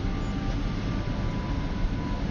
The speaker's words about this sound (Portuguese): Então esse barulho que vocês estão ouvindo é porque eu estou dentro do avião indo para a Índia.